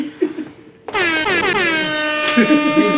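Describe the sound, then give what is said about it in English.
A loud, sustained air horn blast bursts in after a moment of quiet voices and holds steady for about two seconds, with faint chatter and laughter rising beneath it near the end. “the, the air horns.”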